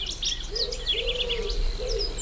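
A wood pigeon coos in low, soft, repeated phrases, while higher bird chirps and a steady hum of insects fill the background.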